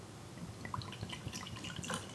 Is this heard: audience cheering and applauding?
no